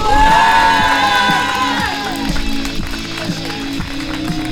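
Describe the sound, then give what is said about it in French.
A crowd at a running event cheers and applauds loudly for a man who ran for Ukraine, with high whoops and shouts over a steady wash of clapping that holds for the full few seconds, easing only slightly toward the end. “je veux un tonnerre d'applaudissements pour ce grand monsieur qui a le cœur sur la main, qui a couru pour l'Ukraine et qui s'est euh, mobilisé depuis de très nombreuses semaines pour la tenue de cet événement.”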